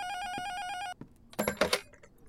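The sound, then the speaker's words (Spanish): A telephone rings with a steady, bright electronic tone for about a second, then cuts off abruptly and is followed by a couple of short clattering knocks, like a handset being picked up. “Yo contesto.”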